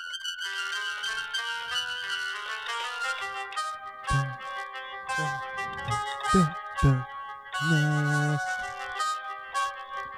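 A fast, driving piano melody with bouncing bass notes plays clear, the wild Pokémon battle music from the old Pokémon games played on piano and used as a phone ringtone, with no talking over it.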